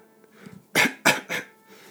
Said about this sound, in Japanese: えー、最後ゴホゴホゴホゴホゴホゴホは咳です咳